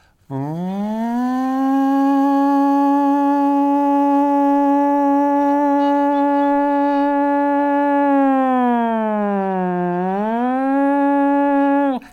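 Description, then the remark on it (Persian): A red-alert air raid siren, signalling people to leave their homes and go to shelters, sounds alone in a loud, steady drone. It swells up at the start, holds one pitch for about ten seconds, briefly dips and recovers, then cuts off. “این آجیر که میزد همه مردم موظف بودن یه صدایی هم میمد صدایی که میشنوید صدای آژیر قرمز است و معنی و مفهوم آن این است که منزل را ترک و به پناهگاه بروید”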